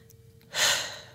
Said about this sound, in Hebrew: אוויר, נשימה עמוקה עמוקה כזאת, ונחזור למוזיקה מיד אחרי המהדורה.